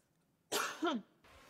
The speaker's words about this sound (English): oh no, she coughed.